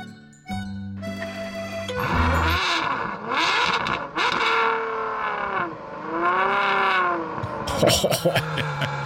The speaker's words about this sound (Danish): Du drejer nøglen, starter motoren snore.